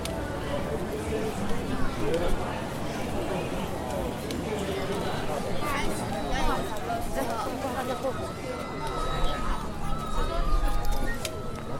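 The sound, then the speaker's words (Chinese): Busy night market crowd with steady overlapping chatter, through which footsteps keep sounding: shuffling steps of people in slippers and sharper clicking heel strikes of high heels, plus occasional hard taps of an umbrella on the pavement. “有人是呃穿着拖鞋，然后有人是穿着高跟鞋，还有人手上有拿伞，那边咔咔敲地板的声音。”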